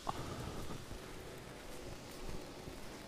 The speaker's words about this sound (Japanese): 今日はそんなに寒くはないんですけどなんか雨が降ってきましたね